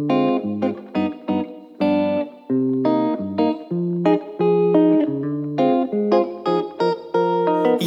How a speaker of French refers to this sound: Jingle.